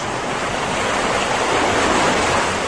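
Loud, continuous roar of high ocean waves crashing, a dense wash of surf that swells slightly toward the end with no pauses and no voices.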